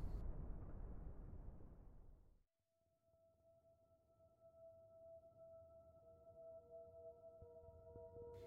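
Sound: bloop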